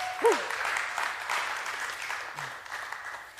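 An audience applauds in a steady, dense wash of clapping that holds for several seconds, with a brief vocal whoop rising early on and a low murmur underneath.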